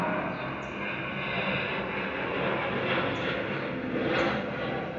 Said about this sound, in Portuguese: Tava demorando nosso aviãozinho passar, hein, gente? Já vem ele.